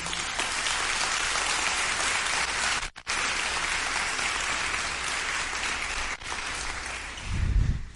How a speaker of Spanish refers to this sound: Es escoger la mejor parte y te acabas de perder la oportunidad de darle un aplauso en un momento espectacular a Jesús.